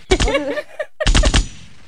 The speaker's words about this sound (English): do I have do I have a bomb noise? I have gunshots.